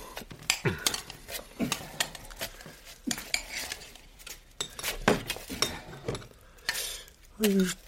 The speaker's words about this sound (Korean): 고양이 사료캔을 뜯어서 그릇에 담으며 잠시 멍하니 있다가